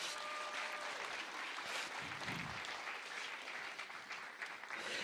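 An audience applauds steadily for the newly baptized on a baptism day, a dense, continuous patter of many hands clapping at an even loudness throughout, with a brief faint voice or tone audible early on.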